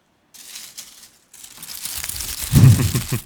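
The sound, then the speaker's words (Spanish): Fingers move the dry leaves of a small flower vase, rustling and crinkling in two bursts separated by a brief pause, the second louder and more crunchy. “y hice así, yo moví lo dedos con la hoja, pan, y tengo mi sonido después.”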